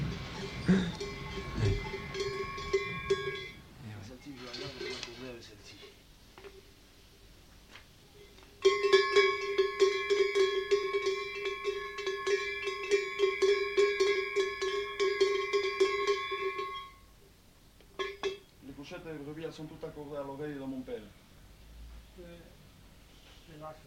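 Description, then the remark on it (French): Tuned sheep and cow bells are shaken in two long bursts, a rapid jangling clatter over sustained ringing tones, with brief talk between the bursts and a voice afterward. The sheep bells were tuned by the owner's father, the cow bells by the person they were bought from. “là, la série des pochettes de brebis, là, c'est tout accordé par mon père.”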